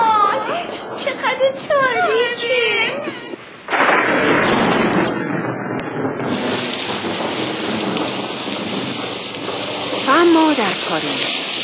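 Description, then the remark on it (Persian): A loud crack of thunder bursts in after a few seconds, then rumbles on under steady, hissing rain. Voices are heard briefly before the storm and again near the end. “خانم ادلا که خواب بود از صدای رد و برق از خواب پرید”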